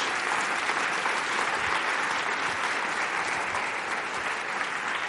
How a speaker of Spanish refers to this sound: Le das un aplauso a Dios por la belleza de Jesús.